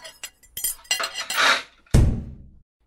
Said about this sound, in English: I dropped my water. There's glass everywhere and it hurts to walk.